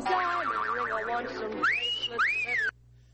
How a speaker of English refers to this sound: Oh, that's the wolf whistle. Right. like when they said that, that's immediately what I thought of.